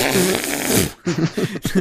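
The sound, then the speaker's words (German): A person blows a loud, wet raspberry with the lips, a sputtering fart-like buzz lasting about a second, followed by a few shorter buzzy lip bursts. “Ich stelle mir das gerade vor, wie er bei ihr unten am Machen ist und sie furzt und er dann das, was du bei Kindern oder so im Nacken machst, immer dieses”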